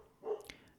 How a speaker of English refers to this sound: And there is the dog barking, if you could hear it in the background yeah.